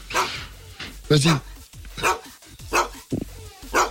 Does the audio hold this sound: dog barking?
yes